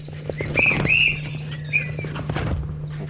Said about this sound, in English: The whistle is to call the greyhounds to run towards the camera.